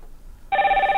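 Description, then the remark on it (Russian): A telephone on a radio call-in line starts ringing abruptly after a quiet moment as a listener calls in, a loud electronic trill that warbles rapidly and continues steadily to the end. No one speaks. “вы можете нам звонить по номеру 0800 21, и нам уже звонят”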